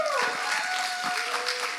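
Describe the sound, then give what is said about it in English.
An audience applauds Jesus during a morning worship, a dense, steady wash of many hands clapping that fills the whole clip, with a few voices calling out beneath it and a faint sustained tone in the background. “And if you believe that, everybody said, everybody said, you just Jesus a round of applause this morning.”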